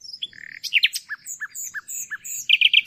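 A nightingale sings loudly: a varied run of bright whistles, short repeated chirps and a final burst of rapid trills, with no voices over it.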